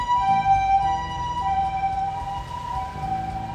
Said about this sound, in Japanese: ピーポーピーポーなってますけどちょっと待ってくださいね